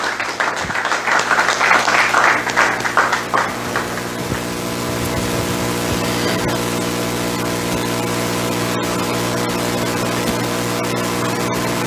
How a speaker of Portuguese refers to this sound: Pode aplaudir ao Senhor, se assentar.